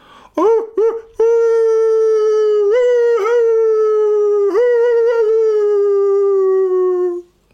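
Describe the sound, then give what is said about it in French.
A wolf lets out a long, sustained howl that slowly falls in pitch with a few small breaks, after two short rising yelps. It's loud and clear, with no talking. “Ce sont donc les loups de Francfort.”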